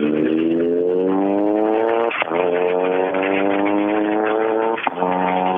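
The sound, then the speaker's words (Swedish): A rally car with a punctured left rear tire drives hard, loose parts hanging and banging; its engine pitch climbs steadily as it accelerates, broken twice by sharp shifts before pulling on again, with no one talking. “Det hänger och slår lite saker, det tror jag ni hörde ganska tydligt.”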